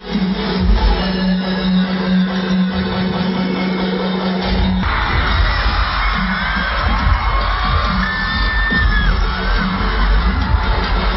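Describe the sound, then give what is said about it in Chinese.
Concert fans in Beijing scream and cheer at an opening dance in a loud, unbroken roar, with shrill shrieks rising above the crowd noise. A steady low hum runs underneath for the first few seconds. “一开场就以一段劲爆热舞帅翻全场，引得歌迷阵阵尖叫。”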